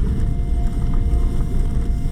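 A steady low rumble from a small van's engine, recorded inside the car on the Sanriku Coastal Road, drones throughout, dense in the bass with a faint constant hum above, at a fairly loud, even level with no voices or breaks.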